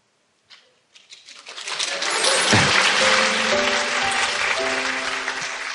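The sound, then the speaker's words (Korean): An audience breaks into applause, starting with a few scattered claps before swelling into steady, loud clapping from many hands that carries on to the end. “그러니까 또 멈췄다가 지금 박수는 동정의 박수가 아니고 응원의 박수인 거지.”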